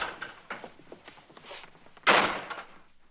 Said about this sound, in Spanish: Los dejan solos. Jacob cierra la puerta.